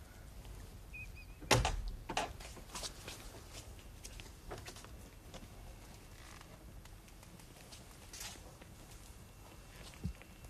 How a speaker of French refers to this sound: Attention, j'ouvre la porte.